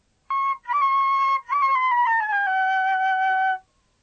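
A hungry person's stomach growls loudly in one long, squeaky, tonal rumble that sounds like a wild animal. It breaks into a few bursts and slides downward in pitch over about three seconds, with no one talking.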